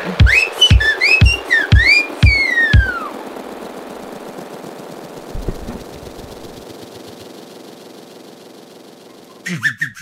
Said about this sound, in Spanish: Vámonos, ah, chiflido. Chiflido de despedida, …. Chiflido de despedida.